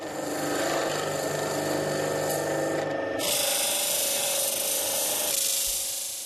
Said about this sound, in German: Jetzt passt sie noch den Durchmesser an. Im Gegensatz zu Holz wird Bernstein beim Drehen nicht geschnitten, sondern geschabt. Er ist porös und kann leicht brechen.